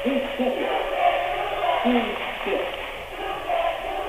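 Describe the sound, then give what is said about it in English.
A large Lothrop student cheering section at a basketball game roars and chants together, a steady wall of many voices that rises and dips in waves without a break. “Boy, the no, new Lothrop uh, cheering section is here in full force. All the students, they are into it.”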